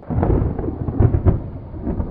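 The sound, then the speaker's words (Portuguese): A deep, rolling thunder clap sound effect fills the whole moment, loud, with heavy low rumbling that swells into a couple of sharper cracks before continuing to growl. “Então, assim, era uma tarde chuvosa. os ânimos estavam exaltados e relâmpagos caíam dos céus.”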